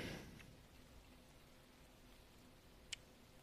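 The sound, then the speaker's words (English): Steady rain falls in a soft, continuous wash, with a brief brighter drip or tap standing out near the end. No one speaks. “And that rain doesn't seem like it's stopping.”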